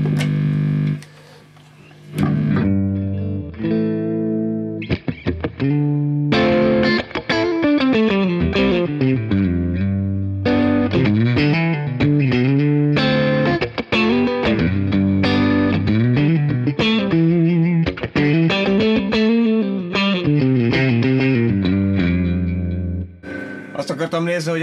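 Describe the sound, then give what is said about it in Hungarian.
A Strat electric guitar is played through a Tubescreamer overdrive pedal used as an always-on pedal, giving a mildly crunchy, warm tone. A melodic lead line of sustained and bending notes rings out continuously at a steady, moderately loud level. “ezt az ilyen finom törstrató hangot, amit, mert igazából ez lehet egy ilyen, egy úgy nézett, ilyen always on pedál”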